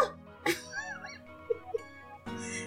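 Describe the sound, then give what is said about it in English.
A man's voice, as he is pushed through a door, imitates a puppy's bark with a few short, high, yelping bursts spaced irregularly, heard fairly quietly with some breathy vocal sounds in between. “Why he got pushed through the door and it sounded like he barked like a puppy.”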